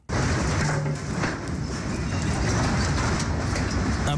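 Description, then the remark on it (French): A loud, deep rumble of the magnitude 7.8 earthquake in Pazarcık, southeastern Turkey, at 4:17 a.m. local time roars steadily for about four seconds, with scattered clattering crashes of collapsing scaffolding mixed into the noise. “sourd, des échafaudages s'effondrent.”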